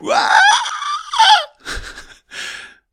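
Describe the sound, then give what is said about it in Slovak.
A person imitates an inner voice's panicked reaction to a spider: a loud, high, wavering shriek lasting over a second, followed by two short, breathy gasps with brief pauses between them. “proste dá tam nejakú, nejaký panický hlas, nejakú panickú reakciu”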